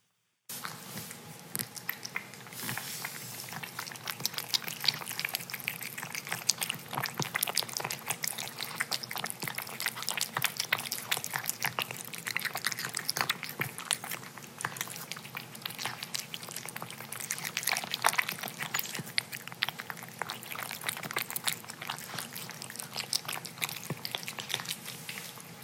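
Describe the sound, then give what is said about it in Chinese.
A hungry cat eats wet canned food fast, with steady, rapid wet smacking and chewing sounds that continue without pause for the whole stretch. No one speaks. “好好，大家听这个速度，大家可以感受得到，他很饿，就是他吃的非常的快，很好笑。”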